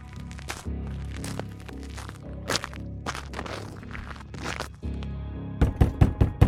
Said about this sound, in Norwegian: Fredag 20. mars banker det på døra hjemme hos … i Hamar.